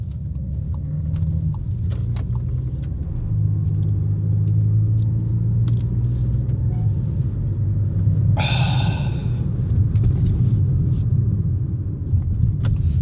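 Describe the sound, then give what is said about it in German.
Muffled, steady engine and road rumble from inside a moving car, continuous and fairly loud, with a brief hissing rattle partway through and no one talking. “weißt du was, und ich fahre da jetzt nochmal hin, ob da einer in diesem scheiß Auto drin sitzt”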